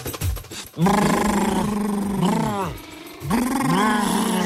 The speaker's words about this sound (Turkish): Dudakları ısırıyor muyuz ilk başta? Dudakları ısırmıyoruz. Tamam. Önce dudakları titreştiriyoruz.